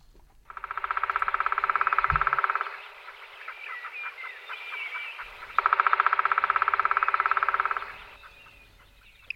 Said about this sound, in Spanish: ya sea tamborileando, que eso fue lo primero que oímos, está golpeando con el pico en,